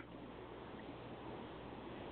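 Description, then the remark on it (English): Steady, hissing wash of rain and road noise from inside a moving car on the road back to the airport, continuous and even throughout, slightly muffled with a low engine rumble underneath and no voices. “I'm on the road back to the airport. It's raining.”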